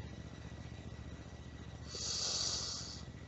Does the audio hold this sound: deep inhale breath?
yes